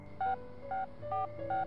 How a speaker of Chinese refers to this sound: 飞速地拨打着那个电话号码，在接通过程中，每一秒等待都是带着着急。